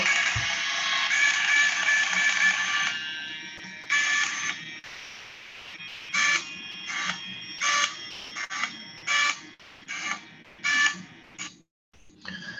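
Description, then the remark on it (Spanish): A biopsy device operating: a loud mechanical buzzing whir runs steadily for a few seconds, then repeats in a series of short, evenly spaced bursts, prominent with no talking. “como vemos, hace, hace un sonido, pero, pero este sonido muchas veces es más tolerado por las pacientes, al menos de la experiencia que he hablando con ellas, que el golpe como tal que muchas veces suena con, el, con la biopsia.”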